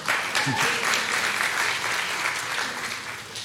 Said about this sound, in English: let's, let's clap for Hannah